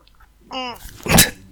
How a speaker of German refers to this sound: Oh, ich muss niesen. Gesundheit.